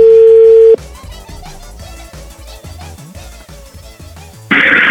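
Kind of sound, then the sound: signal or alarm, telephone dialing tones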